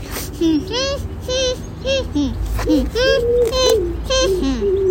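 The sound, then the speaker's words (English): A person imitates a pigeon's cooing, making a string of soft, rolling, throaty coos in a repeating rhythm, with no other sounds around. “Pigeons can't talk, so they can't actually say, I'm not your pigeon. They just go like this.”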